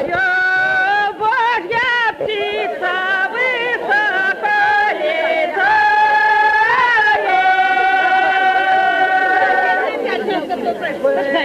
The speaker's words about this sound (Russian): Вот гул толпы вы услышите, и на этом фоне бабы поют.